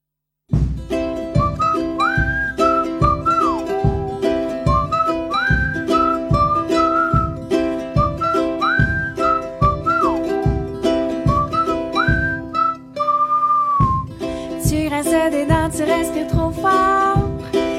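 A song by a sister duo plays on Clin d'œil FM radio, with a bright whistled melody over a steady, bouncy beat and layered accompaniment; near the end the arrangement shifts, adding brighter, busier high tones.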